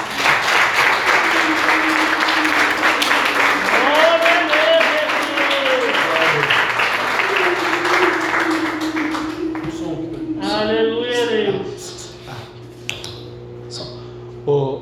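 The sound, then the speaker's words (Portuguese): An audience claps steadily for about eleven seconds in a round of applause for Jesus, a dense, loud wash of applause with voices rising through it, then it fades out and quieter speech follows. “Vamos dar uma salva de palmas para Jesus.”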